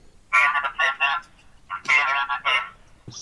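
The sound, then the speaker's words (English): A mobile phone ringtone plays a short melodic tune, two bright phrases of bouncing notes separated by a brief pause, clear. “My, here's my ringtone. Hang on a second. Let me see if I can get it going here.”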